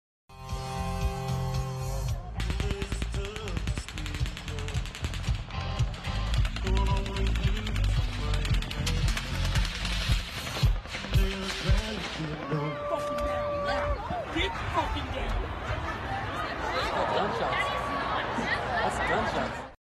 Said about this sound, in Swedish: Och det ni då hör är början av den första rundan av skott som då avlossas mot det här festivalområdet.